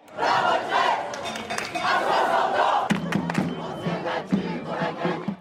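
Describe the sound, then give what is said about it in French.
A large crowd of protesters in France chants slogans in loud, rhythmic unison, voices swelling together in repeated bursts, with sharper shouted accents punctuating the second half. “Partout, la même colère et des tensions. Les mêmes slogans ont ainsi retenti de Bordeaux”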